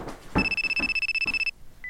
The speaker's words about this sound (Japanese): お母さん電話